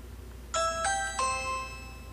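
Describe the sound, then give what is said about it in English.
A default ringtone alert plays three bright, bell-like chimes in quick succession, each note ringing out with shimmering harmonics and a lingering decay over a quiet background. “Ring default.”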